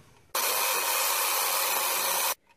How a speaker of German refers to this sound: Da klingelt der Wecker.